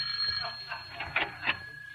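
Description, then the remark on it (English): A bell rings in a short series of bright, tinny chimes, with a couple of louder strikes near the end, sounding like a doorbell over a low hum. “See who's at the door”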